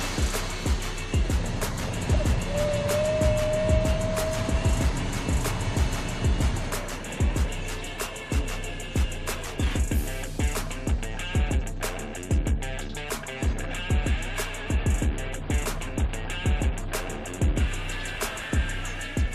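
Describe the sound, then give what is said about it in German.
A steady rumble of a start car's engine as it sets off, with rapid, rhythmic hoofbeats from several harness racing horses trotting behind it at the start of a 2-kilometre race; a brief whistle-like tone rises early on. No one speaks. “Das Startauto setzt sich in Bewegung. Die Pferde traben los.”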